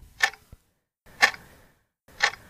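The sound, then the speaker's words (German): A wall clock ticks three times at a steady one-second pace, each tick a crisp, bright click with faint low rumble in between and no voices. “Und zu Hause noch mehr solcher Zeitmesse an der Wand.”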